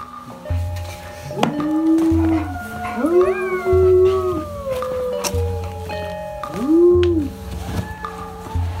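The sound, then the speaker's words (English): Several people howling together at 8 p.m. in Carmel Valley, long wavering cries rising and falling and overlapping one another, moderately loud, with a steady low rumble underneath. “Also, they do the weird thing where they howl at 8 p.m.”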